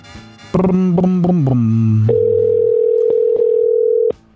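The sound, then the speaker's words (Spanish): A few short, stepped electronic tones give way to a steady, loud telephone dial tone that hums for about two seconds, broken by faint clicks, then cuts off abruptly, as a telephone call is being dialed. “Ahí está marcando”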